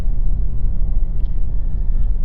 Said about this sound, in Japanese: 今起きてることは車で座って運転しているこれが一番大事なことそして喋っている